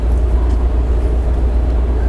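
A steady, loud low-frequency rumble with a constant mechanical hum of a JR West 223 series train running at speed, heard from inside a carriage, on a rapid service bound for Tennoji and Osaka with the next stop at Mikunigaoka, with no voices present.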